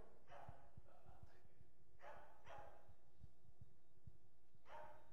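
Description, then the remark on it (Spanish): A dog barks about five times in short, uneven bursts, fairly quiet, with a low rumbling background underneath and no clear speech. “Cierra la zaguánica porque predica más fue el perro que yo.”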